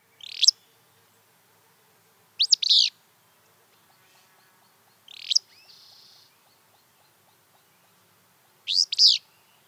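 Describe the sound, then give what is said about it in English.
A willow flycatcher repeats its sneezy, buzzy two-part "fitz-bew" call four times at spaced intervals, clear against a quiet background with a faint insect hum. “Their call is a sneeze, Fitzbew, often delivered from high perches in its territory.”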